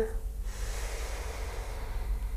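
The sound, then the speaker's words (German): A long, steady inhale drawn through the nose during a guided breathing exercise, breathy, lasting a couple of seconds with a soft airy rush and no talking over it. “Einmal durch die Nase ein,”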